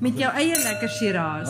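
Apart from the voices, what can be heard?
glasses clinking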